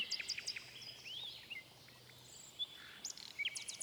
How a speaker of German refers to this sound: Die Nachtigall sang so herrlich, dass dem Kaiser die Tränen in die Augen traten und ihm über die Wangen liefen. Da sang die Nachtigall noch schöner, dass es allen zu Herzen ging.